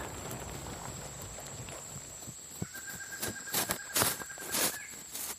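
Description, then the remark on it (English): Horse hooves clip-clop at an unhurried pace through the woods several miles from Blue Mist Village, where Truth Seeker guard Zarah sits atop her horse, with a few sharp, distinct hoofbeats rising above a soft background of insects and faint ambient hiss. “Zarah, a Truth Seeker guard, sits atop her horse and gathers her men.”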